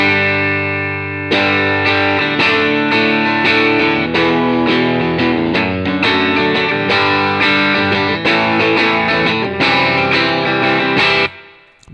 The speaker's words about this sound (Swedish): 74 Strata med Ron Ellis-mickar igen. Mm. Vi har Dreamen. Mm. Och de låter så här.